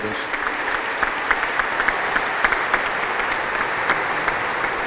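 applause

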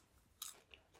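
chewing popcorn

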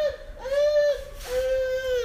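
baby crying

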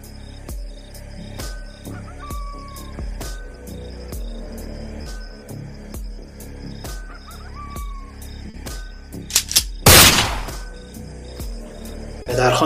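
gunfire sound effect

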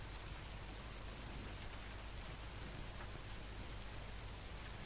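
rain falling

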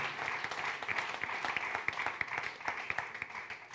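audience applauding

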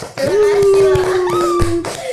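applause clapping

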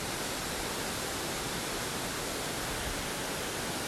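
waterfall

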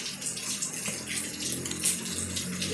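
heavy rain falling

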